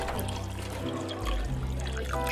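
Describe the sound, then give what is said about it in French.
A small whisky pours steadily into a glass for a couple of seconds, a continuous trickling splash with a faint rising pitch as it fills, fairly loud with no one talking. “Ah, pour le coup, je vais me servir un petit whisky aussi”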